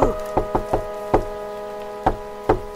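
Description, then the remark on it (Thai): Knocking on a wooden door: a quick first knock, then a rapid run of four raps, a pause, and two more spaced knocks, each sharp with a woody ring. “และในขณะนั้นเอง เจ้าหมาป่าที่ซุ่มอยู่ ก็เห็นเหตุการณ์ทั้งหมด มันซ่อนตัวจนกว่าแม่แกะนั้นจะพ้นสายตามันออกไป จึงได้ออกมาแกล้งเคาะประตู”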